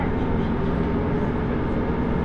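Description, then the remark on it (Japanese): Steady low rumble of a Nagara River Railway train (Seiryu Ressha No. 1) rolling along the rails in Japan, between Minami-Kodakara-Onsen and Shizen-en-mae, approaching Gujo-Hachiman Station, heard from inside the carriage, with a constant dense drone and faint rhythmic clatter throughout. “耳で楽しむ鉄道旅 長良川鉄道 ゆら～り眺めて清流列車１号”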